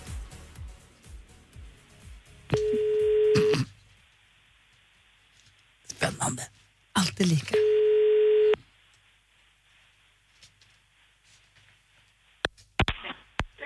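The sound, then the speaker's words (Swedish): A telephone call to one of the contest participants: faint dialing clicks, then two long, steady electronic ring tones separated by a pause, with a few brief spoken words and clatter in between. “då ringer jag nu en av dem som är med och tävlar”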